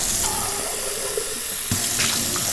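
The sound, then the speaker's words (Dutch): A kitchen tap runs hot water steadily with a dense, hissing rush, continuous, with a brief splashing shift partway through as the stream hits the sink differently. “Het water is warm. Ga ik even laten lopen.”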